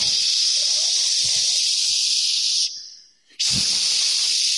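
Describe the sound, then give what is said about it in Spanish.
A voice imitates water running in a guest bathroom that sounded like rushing rain, with a long, steady, fairly loud "shhh" hiss, breaking briefly for a breath before the hissing resumes. “Y yo decía, wow, está lloviendo.”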